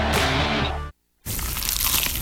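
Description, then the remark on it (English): A loud crunch of someone biting into a crisp, cheesy slice of pizza: a sustained crackly bite right after a brief silence, following a few seconds of tonal sound. “Is that the sound of an ooey gooey, cheesy, crunchy slice of PIZZA?”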